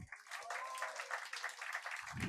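An audience applauds in a steady, dense wash of clapping that holds at an even, moderately loud level throughout, with a faint voice briefly audible underneath near the start.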